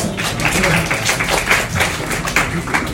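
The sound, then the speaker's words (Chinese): A crowd claps steadily for about three seconds to welcome a former student invited to share exam experience, a dense patter of many overlapping hand claps at an even, moderate loudness with no voices rising above it. “OK，好，我们掌声鼓励，谢谢。”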